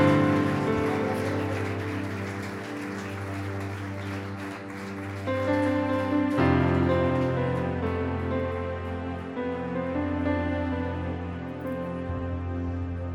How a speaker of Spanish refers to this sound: Vamos a darle un fuerte aplauso al Espíritu Santo en esta hora. Dale un fuerte aplauso al Espíritu Santo.